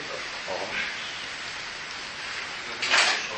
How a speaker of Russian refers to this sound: Что там, дождик?